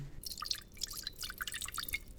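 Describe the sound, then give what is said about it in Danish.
A brief trickle of a small amount of water poured into a pot holding an egg for soft-boiling, reaching only the bottom of the egg; quick dripping, bubbly spatters in an irregular rhythm, fairly quiet, with no one speaking. “Jeg lægger ægget i gryden, og så hælder jeg bare lige ganske lidt vand i.”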